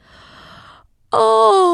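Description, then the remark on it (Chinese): A big, drawn-out yawn from the next room: a long breathy inhale, a brief pause, then a loud voiced groan that slides gently downward in pitch, with no talking. “哦，隔壁房间也传来一个大大的哈欠声。”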